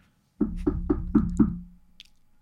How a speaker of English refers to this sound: daisy and travis knock on the door